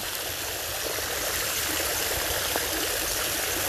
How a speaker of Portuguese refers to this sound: E agora tem uma pedra perto dessa cachoeira. Você se senta nela e nela é possível você colocar os seus pés na água.